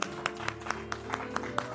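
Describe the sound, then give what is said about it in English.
A steady run of about eight hand claps in praise to the Lord during a sermon, at an even, quick rhythm, fairly soft, over a low sustained tonal hum in the background. “I want to clap my hands and say, Thank you, Lord.”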